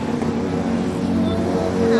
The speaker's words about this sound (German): Nicht nur von Autos und bunten Taktaks wird man überall in der ganzen Stadt verfolgt, auch von blinden Karaoke-Sängern.